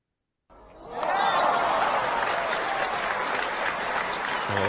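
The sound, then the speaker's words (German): Sustained applause from a group swells quickly after a brief silence, then continues steadily as a dense, even clatter of clapping hands at moderate loudness. “Das war ein langer Applaus für mich.”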